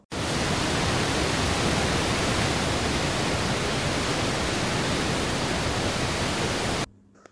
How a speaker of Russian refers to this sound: Он рухнул в бурлящую реку, а быстрое течение подхватило его и понесло к водопаду.